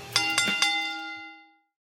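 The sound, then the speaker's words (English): A wrestling ring bell clangs three times in quick succession, loud, its bright metallic ring lingering and fading out after the last strike. “Now ring the bell!”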